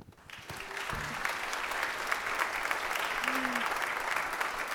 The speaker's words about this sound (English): Let's have a round of applause for all of our volunteers who participate here at Liberty.